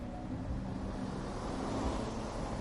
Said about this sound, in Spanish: Bienvenida a la Barcelona de 2023. Haremos la entrevista mientras damos un paseo en este autobús turístico.